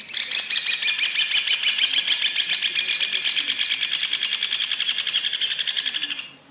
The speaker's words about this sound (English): The title refers to the moment when Villar Rojas and his team found a large number of nests of the red ovenbird, also known as the hornero bird, in an Argentine brickworks.